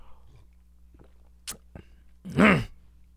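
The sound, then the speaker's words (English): A short, rough human throat growl bursts out, preceded by a few faint clicks and mouth noises amid otherwise quiet. “I'm just growling now.”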